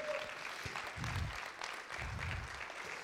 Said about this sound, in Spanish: Si usted lo cree, denle un fuerte aplauso a Dios en esta mañana.